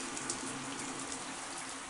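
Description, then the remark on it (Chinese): A steady, even hiss of warm shower water running over a body, a continuous soft spray with faint pattering, holding at a constant moderate level with no voices. “你可以观察一下水落下的形态是怎么样的呢？”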